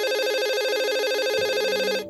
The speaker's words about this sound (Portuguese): Na manhã seguinte, bem cedo, Bárbara foi surpreendida por seu interfone.